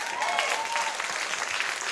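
An audience applauds steadily, a dense wash of many hands clapping at a constant, fairly loud level throughout, with a faint whistle or cheer rising briefly near the start.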